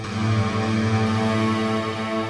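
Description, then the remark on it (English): A bright, lush hall reverb wash from a Bright Hall reverb preset blooms around a sustained, steady chord. It rings evenly and fairly loud for a couple of seconds with no talking. “And if you listen to the tail of the reverb, you can actually modulate it like with lo- huge waveforms or tight waveforms and really like dig into this reverb.”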